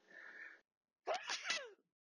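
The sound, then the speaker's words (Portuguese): A loud sneeze bursts out after a brief breathy intake and a short pause, ending with a sharp, noisy expulsion that trails off quickly. No talking. “Foi agora aqui um espirro que aconteceu aqui no meio.”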